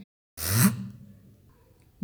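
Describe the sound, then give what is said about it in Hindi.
A single sharp, forceful sniff drawn in through the nose by a father clearing his nose, a loud hissing inhale that quickly fades into a quieter, rough trailing breath. No voices. “कभी कभी वे अपनी नाक साफ करने के लिए बड़ी लंबी और तीखी सी सांस लेते हैं”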